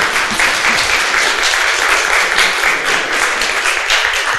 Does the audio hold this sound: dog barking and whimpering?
no